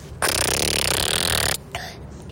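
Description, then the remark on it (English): A voice imitates a motorcycle engine with a loud, raspy, sputtering buzz that holds steady for over a second, then stops abruptly, followed by a brief softer breathy sound. “He was trying to teach me how to to do proper motorcycle sounds, which is something that I've never been very good at.”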